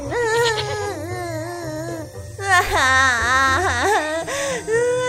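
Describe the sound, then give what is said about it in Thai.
Loud crying fills the whole stretch as a goat and Jong sit crying by the roadside: wavering, drawn-out sobbing wails that rise and fall in pitch, with brief catches between breaths and no words spoken. “กระต่ายตัวหนึ่งได้เดินผ่านเข้ามาได้เห็นจงกับแพะนั้นนั่งร้องไห้อยู่ กระต่ายจึงได้ถามว่าพ่อเธอเป็นอะไรทำไมถึงนั่งร้องไห้กันล่ะ”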